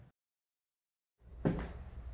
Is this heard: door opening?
yes